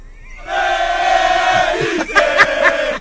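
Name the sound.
football fans chanting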